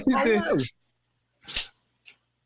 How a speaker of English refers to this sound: Who's that? Is that my dog? Did you guys hear my dog? yeah. So, I don't know. Let me open the door. I've got I've got a little uh, Chiweenie. It's like a wiener dog Chihuahua.